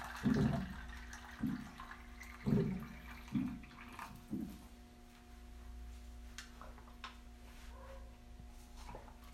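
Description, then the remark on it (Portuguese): Water being drawn, with a series of soft, low gurgling thumps followed by quieter trickling and clinks, over a faint steady hum. No one speaks. “Pera aí que eu vou pegar uma água aqui.”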